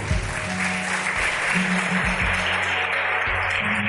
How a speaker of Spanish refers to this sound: Recibamos la Señora humildad con un fuerte aplauso. Dale.